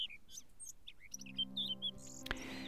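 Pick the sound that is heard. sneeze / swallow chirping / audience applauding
swallow chirping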